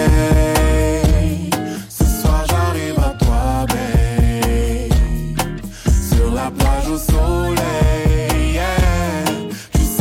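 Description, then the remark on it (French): A song plays at full volume throughout: a sung vocal melody rides over a steady beat, a thick bass line and layered backing instruments, with no spoken talk. “On écoute aussi un extrait, ça fait comme ça.”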